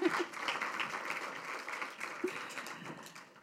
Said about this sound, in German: Das sind wunderbare Mädels an meiner Seite. Applaus für die Mädels! Woo!